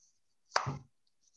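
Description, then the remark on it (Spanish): A single wet, slapping splat made by a voice or mouth imitating a seagull dropping hitting a railing, short, with a brief moist smack and fading tail. “un audio de cómo suena una mierda de gaviota cayendo en mi barandilla”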